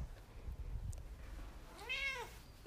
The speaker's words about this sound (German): Boah, gönn dir. Das war so geil. Ich liebe dieses Geräusch, wenn Katzen mauzen. Meine Katze ist aber die geilste.